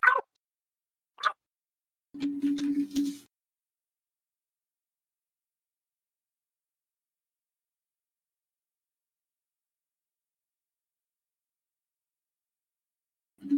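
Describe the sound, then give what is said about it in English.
A couple of short, sharp dog barks, followed by a longer rough whine-like burst, then a long stretch of silence before one more brief bark at the end; the dogs are crowding around a person, wanting to be let outside. “i need to pause real quick all my dogs are swarming me wanting to be let outside”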